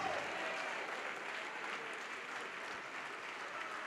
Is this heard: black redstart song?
no